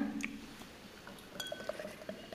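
A bottle of Gerstenglück, a Landbier from Brauprojekt 777 in Förde, is opened and poured: a few light glassy clinks, a brief hissing burst midway, then a soft, steady trickle of liquid with faint ringing tones.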